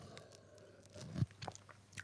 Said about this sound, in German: nochmal Entschuldigung, dass ich trinken muss. Mm. Es ist eigentlich, also ich bin jetzt schon ein bisschen, ich habe jetzt hier schon Mate und Wasser stehen